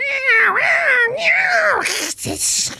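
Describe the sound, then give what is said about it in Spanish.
Cats yowling and caterwauling on a roof at dawn in long, wavering, rising-and-falling cries, ending in harsh hissing bursts like a scuffle as the cats fight. “Los gatos que se pelean a la madrugada.”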